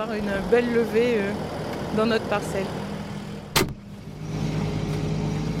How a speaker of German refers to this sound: die Sämaschine funktioniert wunschgemäß. Die Bäuerin tuckert mit ihrem Trecker weiter.